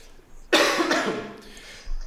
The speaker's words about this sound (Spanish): Pues yo, como podéis ver, voy a seguir con tos, intentaré irme escapando.